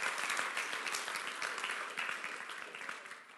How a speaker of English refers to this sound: Take your hands, clap them, and say, Amen.